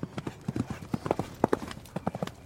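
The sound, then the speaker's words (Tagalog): A steady, brisk clip-clop of horse hooves striking a hard surface, several overlapping beats in a lively rhythm, moderately loud with no talking. “Maya-maya pa ay parang may narinig kaming mga yabag ng mga kabayo.”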